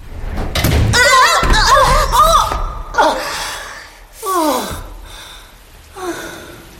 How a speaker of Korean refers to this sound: 그런데 걸쇠가 땅에서 떨어진 순간 바람에 휩쓸린 문이 쾅 닫히는 바람에 우린 동시에 뒤로 나동그라지고 말았다.